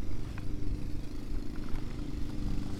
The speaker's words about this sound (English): It sounds windy as fuck right now.